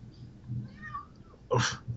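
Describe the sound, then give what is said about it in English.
A cat lets out a loud, insistent meow near the end, preceded by softer mewing sounds, with a low rumble underneath. “And there's a cat who is definitely demanding of.”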